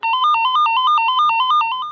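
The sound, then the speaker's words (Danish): A metal detector alarm at airport security goes off as a father walks through: a rapid electronic beeping that alternates between two tones, repeating steadily and loudly for about two seconds with no voices. “Men da faren går igennem, går der straks en alarm i gang, og sikkerhedsvagten fra før går hen imod faren.”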